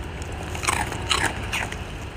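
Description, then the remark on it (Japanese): Crunching of a senbei rice cracker shared by two eaters, the first bite by one and the next by the other: three or four crisp bites in uneven rhythm, each a sharp crackly burst over a low steady background rumble, with no talking. “じゃあおせんべい食べようと一緒おせんべい食べよう美味しいか、うん、最初の噛む音は私の音で”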